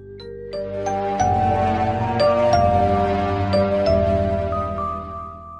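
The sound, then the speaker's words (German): A short, gentle video game music transition sting, a brief melody bridging from dynamic battle music back to the normal theme, of bell-like tones over a soft sustained bass, the melody stepping through a few chime notes before fading out, with no one talking. “also gerade wenn eine dynamischere Musik aufhören soll, wie das Kampf, und du wieder ins normale Thema zurückgibst, dann gibt es auch so kleine Übergangspassagen, so kurze Melodien, wie so Trenner, wie, wie das hier zum Beispiel.”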